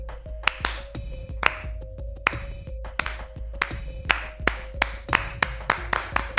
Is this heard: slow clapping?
yes